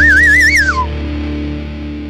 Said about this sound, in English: So you notice I have a slide whistle.